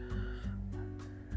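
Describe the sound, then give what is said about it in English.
A man coughs in a rapid series of short, rough bursts somewhere in the background, about five in quick succession, over a steady low hum; a habitual cough he has every night. “if you can hear my dad coughing in the background”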